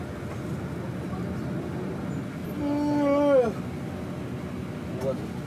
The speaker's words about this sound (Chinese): 我们现在在 G 四二三桥方向的高速路上超堵， 不知道是不是因为大雾的原因。我天啊！行驶缓慢如蜗牛。你听一下这个发动机的声音，就能够判断出我们现在的速度是龟速吧？